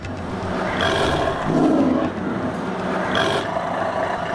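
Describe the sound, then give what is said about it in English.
A deep, rasping tiger roar in a dense Indian forest swells briefly out of a steady, rumbling background noise, with a couple of harsher bursts before and after it; no one speaks. “Suruchi Pandey takes you on a safari in a dense Indian forest to meet the mighty predator, the tiger.”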